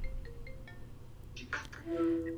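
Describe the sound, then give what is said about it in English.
A phone ringtone for an incoming call plays a short electronic melody of sustained tones, moderately loud, over a low background rumble with no one speaking. “Hold on, I'm getting a phone call.”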